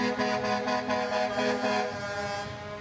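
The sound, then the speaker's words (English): Several vehicle horns from a convoy blare together in a loud, overlapping chorus as it drives past the Kamloops residential school in Canada, pulsing in repeated blasts as traffic rolls past, then trailing off slightly toward the end. No one speaks. “The anguish can be heard in ceremonies in cities, towns, and reserves in a mass drumming circle held on the Canada US border, in convoys honking as they drive past the Kamloops School.”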